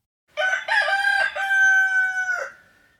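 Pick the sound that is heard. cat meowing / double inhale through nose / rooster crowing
rooster crowing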